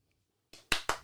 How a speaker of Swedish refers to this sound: Det är värt en applåd.